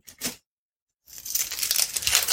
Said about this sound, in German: Und zwar werde ich jetzt hier eine kleine Zwiebel schälen. Also keine ganz kleine, sondern so mittel. Und dann wird die halbiert und in eine der beiden Hälften sticht man dann mit einer Gabel rein.